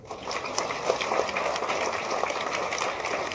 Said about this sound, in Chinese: 好，给了一个掌声。